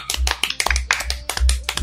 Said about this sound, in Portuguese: Ah, aplausos, pelo amor